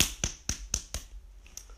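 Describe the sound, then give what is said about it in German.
Someone hits a table with four sharp, evenly spaced thuds in quick succession, then one or two fainter knocks after a short pause. No voices. “Auf den Tisch hauen.”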